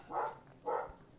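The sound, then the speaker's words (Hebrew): Two quick, muffled barks from the speaker's pet dog, evenly spaced about half a second apart, with no one talking over them. “זה הכלב שלי מסכים איתנו.”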